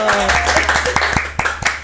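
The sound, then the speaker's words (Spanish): Brief applause from a small group: a quick, fairly steady run of handclaps lasting a couple of seconds, with some voices talking underneath at the start. “bueno, un aplauso, un por el un aplauso.”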